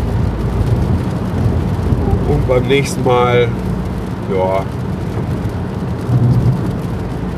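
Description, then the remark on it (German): Steady, heavy rumble of a car's interior while driving fills the whole clip, a constant low roar that continues unchanged while a man briefly speaks over it in the middle. “Letzten Endes äh, ist das Ganze hier auch so ein kleiner äh, Test dafür, wie gut das hier alles klappt und ob ich überhaupt noch in der Lage bin, eine vernünftige Aufnahme aus dem Auto zu machen.”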